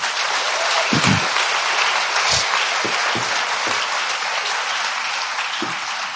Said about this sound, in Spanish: Muy bien, démosle un fuerte aplauso a ellos.